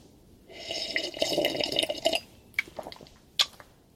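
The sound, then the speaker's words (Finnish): Someone slurps coffee in one long, hissing, bubbly draw lasting under two seconds, followed by a few short wet sips and a sharp smack, with no talking. “Ja tota, tähän lopuksi niin bonuksena mä ryystän kahvia, kun niin moni on sitä kaivannut.”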